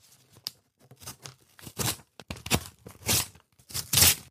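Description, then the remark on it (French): A fabric blindfold is cut with a knife blade in a series of short, rasping tearing strokes, irregular in rhythm and growing louder toward the end. No voices. “On venait de lui couper son bandeau.”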